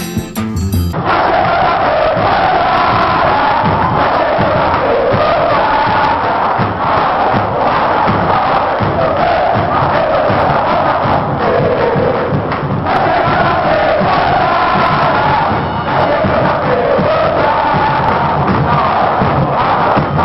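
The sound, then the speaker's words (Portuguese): A dense crowd of Fluminense football supporters (Young Flu) chants 'Tá Chegando a Playboyzada' and cheers continuously, a loud, steady roar of many voices with rhythmic surges and occasional thuds, lasting the whole stretch without pause. “O Som das Torcidas”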